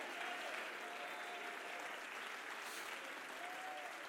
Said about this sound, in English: Would you jump to your feet and clap your hands and say, I want to be ready?